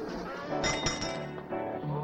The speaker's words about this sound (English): Car keys dropped into a balloon glass. This is a key party